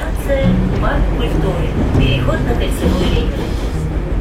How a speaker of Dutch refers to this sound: Dus ja, iedere paar seconden komt er een, een, wagon, een reeks wagons voorbij gedenderd.